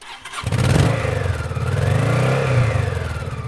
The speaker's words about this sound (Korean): 힘찬 엔진 구동 소리가 들린다. 엔진 소리가 이렇게 반가울 수가 없다.